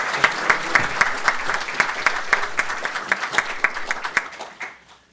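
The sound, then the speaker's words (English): An audience applauds to welcome Secretary Ashton Carter, a dense wash of many hands clapping with sharper individual claps standing out, holding strong for about four seconds before thinning and fading out near the end. “Let me ask you to join and welcome with your applause Secretary Ashton Carter.”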